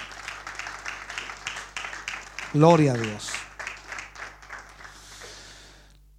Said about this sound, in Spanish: ¿Puede dar ese aplauso de alabanza al Señor?